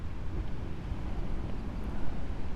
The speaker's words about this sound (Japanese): お風呂じゃないですこれ海ですこんなすごい音のあれお風呂だったら面白いかも今海岸まで来て配信してます